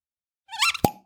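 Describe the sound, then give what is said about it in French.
A cork squeaks as it is drawn from a wine bottle with a corkscrew, ending in one sharp pop with a brief hollow ring afterward; no voices. “On commence par ouvrir la bouteille à l'aide d'un tire-bouchon.”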